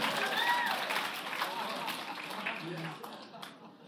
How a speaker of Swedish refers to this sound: Come on Södra, ni kan också applådera där nere. Applådera som om ni hade fått in den största kebaben ni har sett i hela ert liv. Come on somebody.